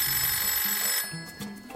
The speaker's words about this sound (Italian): stai già componendo il numero? Esattamente. Beh, vediamo se suona un telefono.